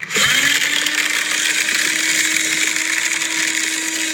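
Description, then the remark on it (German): A paper shredder whirs steadily, a loud continuous motorized grinding with a sustained low hum that starts abruptly and holds for several seconds, no voices. “Es ist ein Papierzerhäcksler.”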